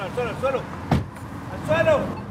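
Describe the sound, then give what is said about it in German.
A border police officer brakes an SUV and jumps out with two colleagues; a single sharp car door slam cuts in near the middle, with raised voices calling out in Spanish before and after it over a low vehicle rumble. “bremst den Geländewagen ab springt mit zwei Kollegen aus dem Auto und ruft auf Spanisch, auf den Boden, auf den Boden.”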